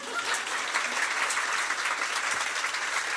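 A crowd applauds steadily, a dense wash of many hands clapping at once with no pauses, moderately loud throughout.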